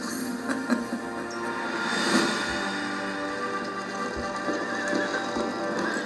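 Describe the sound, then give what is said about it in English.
A herd of two thousand horses gallops steadily through the night, ridden by royal guardsmen, hooves drumming in a dense continuous clatter, while whinnies and neighs rise over the rumble. No voices are heard. “Two thousand horses galloped through the night, each one with a royal guardsman of the reins, and a young Endelite at the back.”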